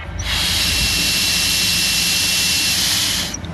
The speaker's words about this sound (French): L'analyse est en cours. Démarrage OK. Là, on peut démarrer le, le véhicule. L'appareil tient dans la main, placé à côté du volant, il faut souffler pour démarrer, puis souffler à nouveau après avoir pris la route.